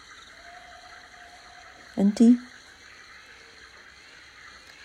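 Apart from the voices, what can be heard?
waterfall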